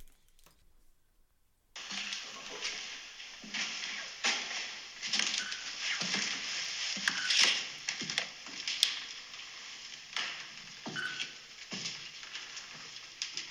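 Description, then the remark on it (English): A run of sharp mechanical clicks of a camera shutter firing repeatedly at an irregular pace as someone takes pictures, set against a steady hiss of background noise that begins abruptly after a short quiet stretch. “just taking some pictures. That's the sound you're hearing.”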